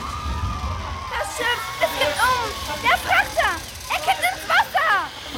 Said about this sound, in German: An Bord beginnen die Menschen ängstlich zu schreien.